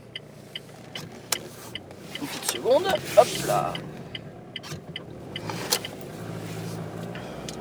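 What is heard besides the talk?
cars driving past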